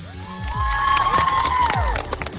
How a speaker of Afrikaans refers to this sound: Kom ons gee 'n groot hande klap aan ons burger.